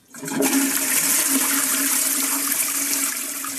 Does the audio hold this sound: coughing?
no